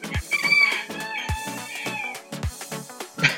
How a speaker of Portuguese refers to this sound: O Galo, o Galo, o Galo confirmou.